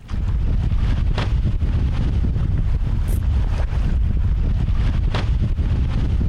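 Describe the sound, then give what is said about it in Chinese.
A humpback whale slapping its tail fluke on the water: two soft, sharp splashes a few seconds apart, half-buried under steady wind buffeting and a low boat-engine rumble. No one speaks. “那个啪啪声就是尾巴， 就是尾鳍在拍水面这样”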